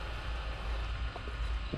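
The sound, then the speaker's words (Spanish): An enormous, obese pig snorts and grunts, a steady run of rough, breathy nasal noises with a louder grunt near the end, and no one speaking. “Una obesa y titánica criatura que llenaba todos mis sentidos con cada resopido que soltaba en mi rostro.”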